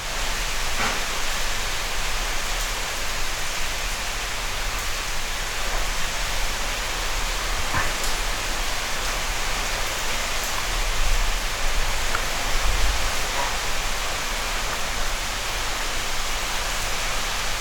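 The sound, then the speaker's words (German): Heavy rain pours down during a thunderstorm in a dense, unbroken hiss that holds steady throughout, with occasional faint ticks of drops and a soft low rumble swelling briefly near the end. “Aber es scheint wirklich eine längere Geschichte zu werden mit dem Gewitter.”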